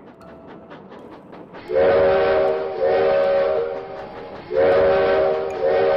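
A steam train chuffs in a quick rhythm as it sets off again, then a loud, steady, harmonically rich train whistle sounds in two long blasts, each briefly dipping midway, with no talking.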